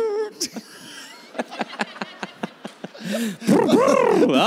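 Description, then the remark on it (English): A voice imitates a car engine starting: a run of quick, evenly spaced sputtering clicks like cranking, then a loud, wavering roar as the imitated engine catches and revs. “well, the car started, so I should probably get out of here.”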